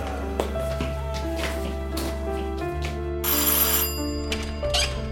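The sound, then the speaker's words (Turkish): A doorbell rings at an apartment door on the fourth floor of a state-built apartment block, with a steady, melodic electronic chime, its tones sustained and overlapping, with a brighter, buzzing burst midway through. No one speaks. “Kulağı kapıda bizi bekliyor olmalıydı Hicabi Bey. Daha ilk çalışımızda açıldı kapı.”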